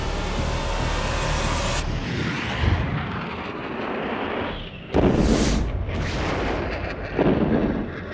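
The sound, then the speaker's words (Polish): Bombs explode on airport runways over a constant roaring drone from the jet engines of two small, fast planes, with several heavy, rumbling booms bursting loudly at irregular intervals and no voices present. “Rozpoczęło się bombardowanie pasów startowych.”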